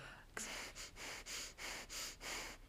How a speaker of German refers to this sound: Jetzt, jetzt höre ich dich schniefen.